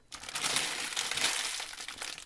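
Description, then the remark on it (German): An empty crisp packet is crumpled up, giving a dense, continuous crackling and crinkling that lasts about two seconds, with no voices. “Werde ich jetzt kurz rascheln und sie zerknüllen?”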